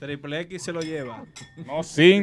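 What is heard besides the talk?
glasses clinking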